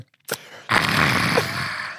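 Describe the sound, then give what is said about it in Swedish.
A short sharp intake is followed by a long, breathy 'ahh' exhale, loud, held for over a second. A person imitates the satisfied sigh a man on a train made after each sip of coffee. “Ja, ah! Efter varje klunk.”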